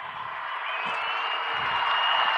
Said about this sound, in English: There's the defensive crowd yelling for a stop. Two yards to go on fourth down.